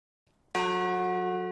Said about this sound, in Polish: W Kolbuszowej na Podkarpaciu symbolicznie zabito dziś w dzwon głosu nienarodzonych dzieci.